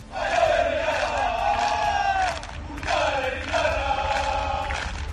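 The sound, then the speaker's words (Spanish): More than a hundred Real Sociedad football fans cheer and applaud their players at a team training session, voices rising in two long, sustained chant-like bursts with a brief dip between, energetic with no single speaker. “Más de un centenar de seguidores de la Real aplaudían y animaban a los jugadores de Donostiarras.”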